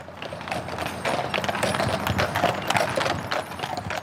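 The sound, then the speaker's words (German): Horse hooves clip-clop steadily on pavement with a brisk, regular rhythm, alongside the rumble and creak of a wheeled wagon, as the horses deliver beer from the Feldschlösschen brewery into the village in the Rheinfelden region of Switzerland. No one speaks. “Das sind die Pferde, die gerade Bier ausliefern.”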